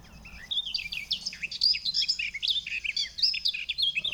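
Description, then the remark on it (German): A warbler-like songbird sings a fast, continuous stream of high, scratchy twittering phrases, clear over a low background rumble, with no voices. “Die ist noch unscheinbarer als die Gartengrasmücke. Die klingt dann so.”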